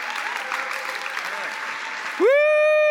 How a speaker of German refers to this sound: So deswegen lasst uns mit einem riesen Applaus begrüßen Pastor Russell Evans vom Planet Shakers Melbourne, Australien.